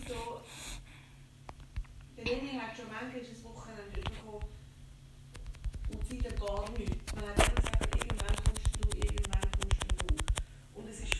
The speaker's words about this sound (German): hat einfach fett daneben geschossen